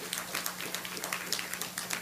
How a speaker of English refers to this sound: Did you get anything out of this today? you did, put your hands together, give the Lord a hand clap.